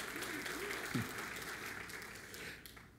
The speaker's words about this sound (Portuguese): Obrigado por esse aplauso.